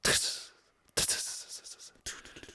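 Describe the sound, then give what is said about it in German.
A voice imitates a percussive whispered 'shoot me' from a song recording as three breathy hissing bursts with short gaps between them, sharp and noisy like a rhythmic shushing beat. “Und dieses Geräusch klingt so total percussionmäßig. Dabei hat er einfach nur Shoot Me gesagt.”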